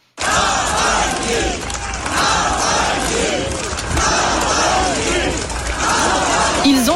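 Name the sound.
crowd chanting a name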